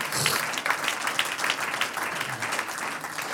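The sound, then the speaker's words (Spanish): An audience breaks into steady applause for the Lord during preaching, many hands clapping in a dense, continuous patter that stays fairly loud throughout with no voice standing out. “Dije, Dios le escucha, un aplauso al Señor, aleluya.”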